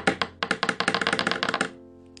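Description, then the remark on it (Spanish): A quick drumroll tapped with a pencil and a pen on a tabletop: about twenty sharp wooden taps speeding into a rapid rattle, then stopping, leaving a faint ringing tail. “Redoble de tambores.”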